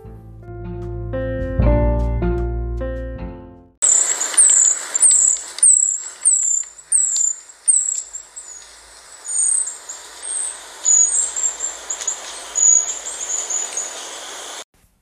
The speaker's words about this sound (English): a tree creeper bird, which I saw running vertically up the tree trunk. Here we have one calling to us.